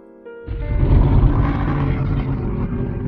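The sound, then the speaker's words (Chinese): A tyrannosaurus roars: a loud, deep, rumbling growl that bursts in after a brief low hum and holds steady for nearly three seconds, gravelly and heavy in the bass. “霸王龙吼叫着，”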